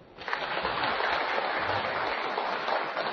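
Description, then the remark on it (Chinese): An audience at a literature museum breaks into applause almost at once, welcoming Redology scholar Zhou Ruchang before his lecture on the art of Dream of the Red Chamber: a dense, steady patter of many hands clapping that stays fairly loud and even for about three seconds, with no voices. “今天周先生要给我们讲《红楼梦》艺术的个性，大家鼓掌欢迎。”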